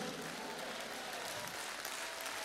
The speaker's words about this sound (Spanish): ¿Quién no le da la vida a ese gran pastor? ¡Ah! ¿Quién no aplaude a un gran pastor así?